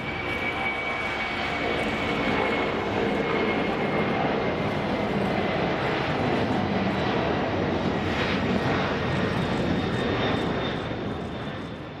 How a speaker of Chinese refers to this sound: 一切检查无误后，九点零七分，五二二航班收到了来自机场塔台的指令，可以起飞。五二二航班在跑道上开始滑行、加速、腾空而起，冲上云霄。